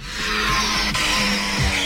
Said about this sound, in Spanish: así suena el coche de Fernando Alonso, el Aston Martin, con el que el piloto español va a rodar esta temporada